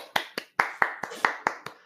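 A single person claps about eight times in a quick, steady rhythm after a live song performance, each clap a sharp, bright smack with a faint tail ringing between them.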